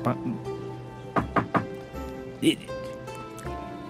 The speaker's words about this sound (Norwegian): Mm, så ja, det står for, foran, dø foran denne døren. Knakka på døren.